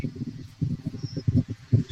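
Muffled, low rumbling bursts of breath buffeting a microphone, coming in uneven puffs over two seconds, fairly loud and boomy, with no clear voice.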